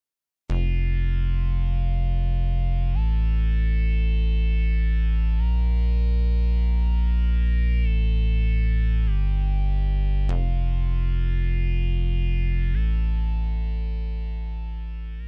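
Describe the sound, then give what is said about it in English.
A thick, fuzzy synthesizer bass in a song, layering a few different sounds together, holds long distorted notes, shifting pitch every few seconds in a slow line. It is loud and buzzy with layered overtones, then fades out at the end. No voices. “I also added a fuzzy synthesizer bass, which layers a few different sounds together.”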